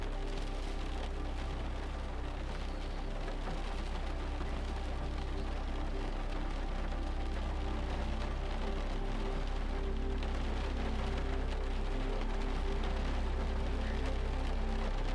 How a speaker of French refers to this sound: Vous entendez la pluie taper contre la maison et ruisseler jusqu'à l'herbe au sol.